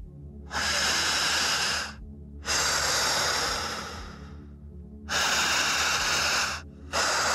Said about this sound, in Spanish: Estás respirando por la boca. Jadear. Pero en una mecánica dividida en tiempo y fuerza.